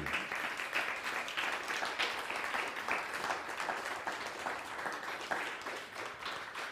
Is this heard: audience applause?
yes